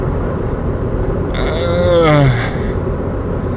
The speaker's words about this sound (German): Und jetzt fahre ich hier mit so einem Golf, äh, was ist denn das? Golf 2, Golf 3? Auf jeden Fall hat das Ding noch keine Klimaanlage.